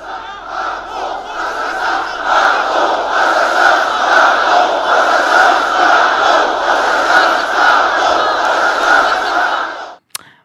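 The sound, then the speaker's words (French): A huge crowd of tens of thousands of supporters at Eric Zemmour's Trocadéro rally chants "Macron assassin" in unison, a dense, loud roar of many voices sustained for about ten seconds before cutting off abruptly. “plusieurs dizaines de milliers de partisans ont scandé Macron assassin pendant de longues secondes”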